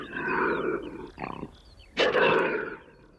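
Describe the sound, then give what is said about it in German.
A Eurasian lynx in the Bavarian Forest National Park, Germany, gives two loud, harsh, drawn-out yowling calls, separated by a short rough grunt, with no voices present. “Der Luchs.”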